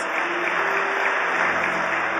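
A crowd claps steadily, a dense, even wash of applause from many hands filling the room at moderate loudness, with no voices standing out.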